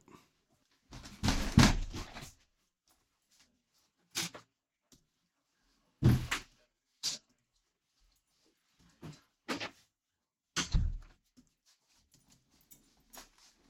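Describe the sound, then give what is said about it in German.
A door is pulled shut, with a few scattered thuds and bumps over several seconds in otherwise quiet surroundings, and no one speaking. “Ich bin, muss einmal ganz kurz die Tür hinter mir zumachen.”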